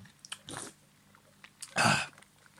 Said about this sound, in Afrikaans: het heerlike slukkie vir my dopgevat.